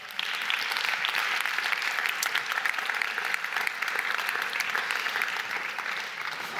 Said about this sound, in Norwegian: Skal vi gi en varm applaus til våre tre filosofer?